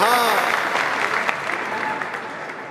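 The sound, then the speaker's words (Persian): A dense, loud crowd laughing and shouting together, a continuous roar of many voices with a clapping-like texture that holds steady for a few seconds before easing slightly. “جمعیت میخندیدن و فریاد میزدن”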